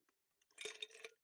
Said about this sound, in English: Are you making a drink? Oh no, I'm just drinking water. his ice must have hit like the bottom of his cup.